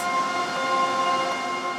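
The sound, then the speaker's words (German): A 250-metre-long corrugated cardboard production machine at the firm Pro Group in Offenbach an der Queich, making thick corrugated board from thin paper, runs with a steady, loud industrial roar, layered with constant whining tones and a dense rushing hiss, unbroken and without any voices. “Mit einer 250 Meter langen Maschine wird aus dünnem Papier dicke Wellpappe gemacht.”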